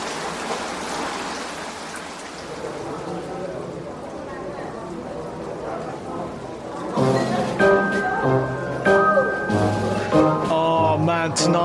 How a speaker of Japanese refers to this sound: But it's still pissing down outside.